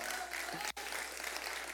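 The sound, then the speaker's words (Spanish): Steady applause from a church audience, given for the Lord, dense and continuous clapping that fills the whole stretch, with a brief dropout near the middle before the clapping resumes at the same level. No one speaks over it. “Vamos, dale un aplauso, Señor.”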